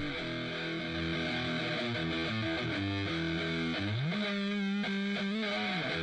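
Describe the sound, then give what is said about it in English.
A crunchy, distorted electric guitar plays alone, shifting through sustained chords and bending notes with a thick, steady, fairly loud tone and no voices over it. “I don't think there's anything in this except guitar.”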